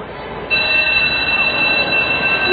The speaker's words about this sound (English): What was that? The bell for recess.